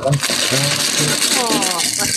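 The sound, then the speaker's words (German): A loud, continuous grinding rattle like a blender crushing ice, coming through a participant's open microphone, with a few faint muffled voice-like sounds underneath. “Das klang ihm, als ob er sich da irgendwelches Eis macht.”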